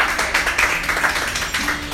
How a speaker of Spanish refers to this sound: Hay que le dar un aplauso al Señor por eso.